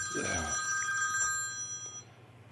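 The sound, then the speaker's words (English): A telephone rings with a bright, steady electronic tone, an incoming call from the speaker's wife, sustaining and slowly fading, while a voice murmurs briefly underneath at the start. “that's my wife calling.”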